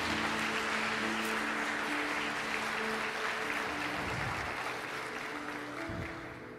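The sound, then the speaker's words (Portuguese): A church audience applauds for Jesus at the preacher's call during a sermon, a dense wash of many hands clapping at a constant level for several seconds before easing slightly, with low tones and a few thumps underneath. “Dê um aplauso a Jesus se você está entendendo alguma coisa aqui.”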